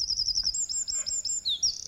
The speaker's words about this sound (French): Le troglodyte mignon peut croiser furtivement notre chemin dans les rues de la capitale.